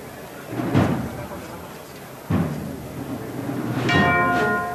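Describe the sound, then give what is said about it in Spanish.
Bells played by a band in a Holy Week procession clang a few times at a loose, unhurried pace in front of a parish church, the last strike ringing out with bright sustained tones over a busy outdoor background with some voices. “Mira cómo suenan también las campanas, ¿eh?”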